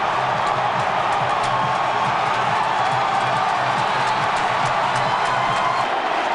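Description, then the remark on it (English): A baseball stadium crowd roars in a loud, unbroken wall of cheering that holds steady for several seconds, with no single voice standing out, after Freese's hit off the right-field wall scores a run and ties the Cardinals' game 7-7. “Pujols Chapman behind him, and listen to this crowd. They have gone banana.”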